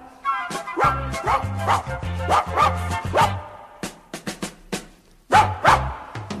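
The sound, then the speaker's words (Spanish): A small brown-haired dog on a collar, out for a walk in a park, barks furiously at passing people in a rapid run of loud barks, pauses briefly amid a few sharp clicks, then lets out another burst of barking over a low musical backing. “con furia empieza a ladrar.”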